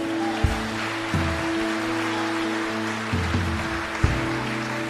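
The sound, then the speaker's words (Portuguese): A church audience applauding in a steady, dense wash of clapping that holds throughout, with sustained keyboard chords shifting underneath and no voices. “Pode aplaudir aquele que é seu.”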